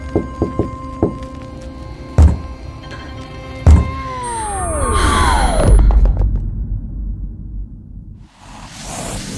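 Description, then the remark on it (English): Knuckles of a fist knock on the wooden floor of an apartment: a quick run of light taps, then two heavier thuds spaced apart, followed by a swelling, downward-sweeping whoosh and a closing hiss. “lifts her head up as her fingers form into a hesitant fist and slowly finish the familiar phrase of the knock onto the wood floor of the apartment.”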